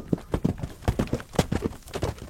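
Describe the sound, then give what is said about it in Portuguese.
Rapid hoofbeats of a black horse galloping home, a steady run of sharp thudding clops, loud and rhythmic over a couple of seconds with no voices. “Quando eu joguei a perna por cima do meu cavalo, ele relinchou que o chão tremeu e o galope dali para casa”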